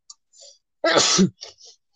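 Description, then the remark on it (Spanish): A single sharp sneeze bursts out loudly after a soft inhaling breath, followed by a couple of faint, breathy exhales. No talking is heard. “Salud.”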